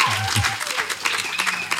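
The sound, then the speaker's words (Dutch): A group applauds with dense, steady clapping that holds at an even loudness throughout, while a voice briefly murmurs under the claps at the start. “Ja, ik zou bijna ook weer gaan klappen als ik eh, dit gesprek weer zou horen.”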